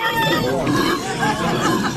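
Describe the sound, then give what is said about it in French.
A 28-year-old man imitates a pig's squeal in a best pig-squeal contest at a village festival, voicing a loud, continuous, wavering high-pitched cry that runs unbroken for about two seconds with no other sounds around it. “Difficile à croire sans image, mais non, ce n'est pas un vrai cochon.”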